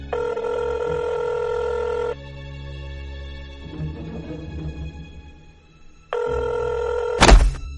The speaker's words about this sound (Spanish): Suena el teléfono.